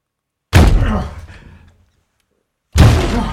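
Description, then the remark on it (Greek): Two heavy, booming slams against an armored door as police try to force it open, spaced about two seconds apart, each with a loud impact and a rattling, decaying resonance, forceful, with no voices. “Σπάσε την πόρτα!”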